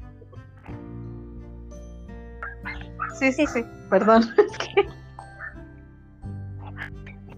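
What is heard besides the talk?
puppy whining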